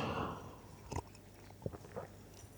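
A quiet sip of cola: a few soft, brief clicks and gulping sounds spaced over a couple of seconds, with no talking.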